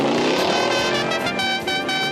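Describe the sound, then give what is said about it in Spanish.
A loud, brassy car horn of the General Lee, an orange 1969 Dodge Charger with a number one painted on the door, sounds a run of shifting musical notes, blaring steadily for about two seconds with no voices. “¿Y cómo olvidar el claxon?”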